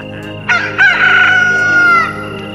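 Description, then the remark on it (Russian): A rooster crows once, for the second time, a loud, drawn-out cock-a-doodle-doo that starts with a couple of sharp rising notes and holds a strained, wavering cry for over a second before trailing off. “Петух запел во второй раз”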